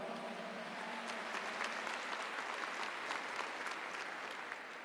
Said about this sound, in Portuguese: Dá uma salva de palmas para ela.